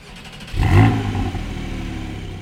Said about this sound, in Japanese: 今これもすごくファンキーな911が1台ドーンと来てますけど、はい、ちょっと車について教えていただいてもいいですか、はえー、っと1989年式の930ターボをえーと、新車で買ってワンオーナーで乗り続けてます